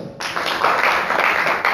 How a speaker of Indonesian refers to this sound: Tepuk tangan dong